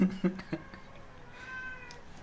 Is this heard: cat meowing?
yes